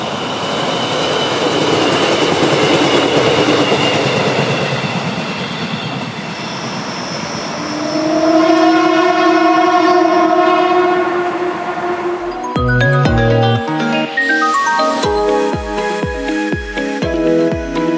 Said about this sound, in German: Und zwar, wir schalten noch einmal an die obere Lahntalbahn. Und zwar an die Karlshütte. Dort freute sich der Lokführer, dass er dort von uns aufgenommen wurde und bedankte sich mit einem spektakulären Pfiff.